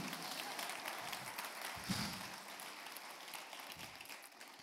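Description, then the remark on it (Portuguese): An audience breaks into sustained applause for Jesus, a dense, steady patter of many hands clapping at once with a few brief cheers rising over it, holding fairly even loudness for several seconds. “Pode aplaudir a Jesus, porque essa foi boa mesmo, até eu gostei.”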